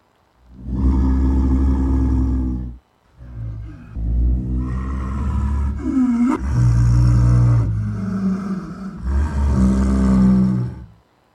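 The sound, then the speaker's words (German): A leopard calls with loud, deep, rasping roars, four long drawn-out bursts in a row with brief gaps, powerful with no voices over them. “Tja, Leopard oder Nilkrokodil?”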